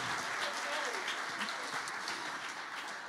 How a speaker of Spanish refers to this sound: Dele el aplauso.